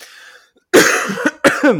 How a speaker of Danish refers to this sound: Øhm, du hoster også lidt selv. Ja, ja. Jamen, jeg har jo været syg. Jeg var jo også syg sidste uge.